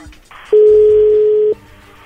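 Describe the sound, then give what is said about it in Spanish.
A telephone dialing tone as a call is placed: one steady, loud, low-pitched beep lasting about a second, with faint background rumble before and after and no talking. “Bien, entonces ahí le va a marcar.”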